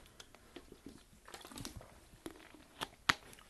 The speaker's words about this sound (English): I'm drinking some water by the way.